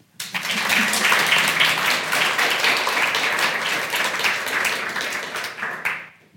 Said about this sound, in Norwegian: Så jeg foreslår vi starter med å gi statsråden en varm applaus.